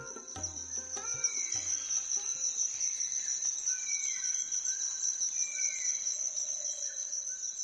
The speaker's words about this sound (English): We close this show from Bonn, Germany, with sounds from the Japanese city that bears the name of the treaty being negotiated here. Sarah Peebles recorded the subtle ambience of an outdoor temple in Japan's ancient capital, Kyoto.